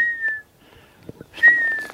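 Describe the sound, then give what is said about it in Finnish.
A person whistles two plaintive, slightly falling notes, imitating a golden plover's mournful call, with a short pause between them; clear, with no talking. “Sehän on haikea vihellys, jota … nyt matkii.”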